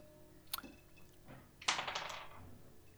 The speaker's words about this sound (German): Und äh, ich würde dich einladen zu würfeln